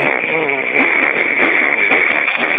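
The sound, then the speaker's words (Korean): A person vocally imitates a grass trimmer a second time, on request, in a sound-imitation game, producing a loud, steady buzzing drone that holds for a few seconds with a slight wavering pitch. “예, 예, 예초기 다시 한번 해보세요.”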